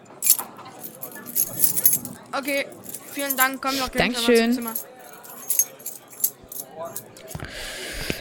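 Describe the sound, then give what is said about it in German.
Room keys for room 213 jangle in several bright, metallic bursts as they are handed over, while people exchange brief spoken thanks over them. “Ich gebe Ihnen hier die Schlüssel.”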